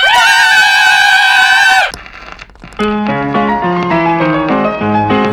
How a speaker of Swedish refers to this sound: Vi avslutar som vanligt med ett, eh, ett ångestbefriande power metal-skrik. Ah!